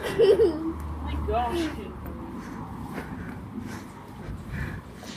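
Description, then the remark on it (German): A small dog lets out a few short, high-pitched yaps, mostly early on, fairly faint against a low background rumble and murmur. “Da hat ein ganz kleiner Hund ganz viel Scheiße gemacht. Falls ihr das gehört habt.”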